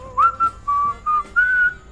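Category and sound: human body sound, person whistling a tune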